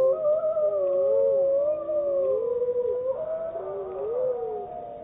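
Several wolves howl together in a sustained chorus, their long wavering tones overlapping and sliding up and down in pitch, with no talking.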